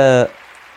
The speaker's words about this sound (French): Non, non, ça va, ça va, vous n'avez pas besoin d'applaudir, hein, ça va, ça va. Merci.